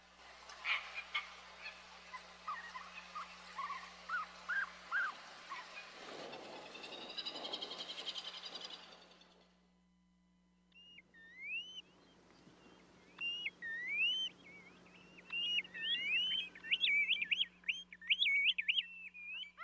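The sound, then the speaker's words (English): Hawaiian seabirds, including the fairy tern, calling: first a busy stretch of harsh, honking chatter, then a brief lull before a burst of rapid, warbling whistles and squeaky calls. No voices. “pick up our conversation with marine explorer Susan Scott, who has turned her attention from shrimp, sea slugs, and Spanish dancers to Hawaii seabirds. Take a listen.”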